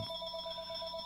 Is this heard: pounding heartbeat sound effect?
no